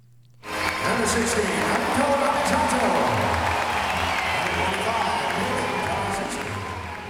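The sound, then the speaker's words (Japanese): A loud crowd at Okinawa Arena roars and cheers before a basketball game, cheering Gunma Crane Thunders player Narisato, a dense, sustained wash of voices and applause that bursts in suddenly and holds steady for several seconds before easing slightly at the end. “一方対戦相手の群馬クレインサンダースには県出身の並里成人選手も所属しており並里選手は試合前から沖縄アリーナで大きな歓声を受けていました。”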